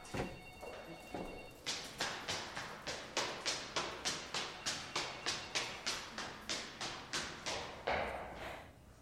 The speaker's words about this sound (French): Je dévale les escaliers du sous-sol.